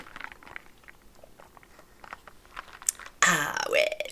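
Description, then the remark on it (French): Sipping iced coffee: a few soft scattered clicks and small mouth sounds, then a sudden loud, rough slurping sip that carries on for about a second. “Et là, je vais prendre une petite gorgée de mon café glacé.”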